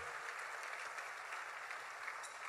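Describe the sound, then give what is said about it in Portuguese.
An audience claps steadily to applaud Jesus, a dense, continuous wash of applause at an even level, with no voices heard over it. “Aplauda Jesus, glorifique o nome do Senhor.”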